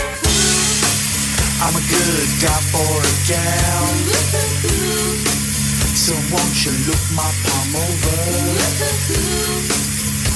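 A loud alternative rock song, a band's first single, which played on MTV from 1995, plays without a break, with dense, fuzzy distorted guitars over a steady low bass line and a wavering melodic lead riding on top.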